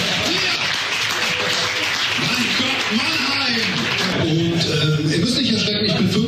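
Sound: audience clapping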